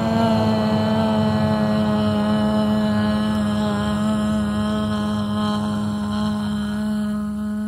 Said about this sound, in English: So, breathing in, this one is an investigation with an R sound. It's almost asking, what's going on in here this morning?